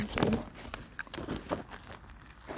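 Quiet rustling of the paper wrapper of a döner kebab followed by a soft bite into it and a few crinkles and muffled chewing noises, with faint voices in the background.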